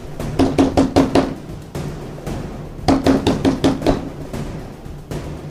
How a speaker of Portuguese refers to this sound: E no meio daquela madrugada tranquila, o silêncio foi interrompido por batidas fortes na porta de casa.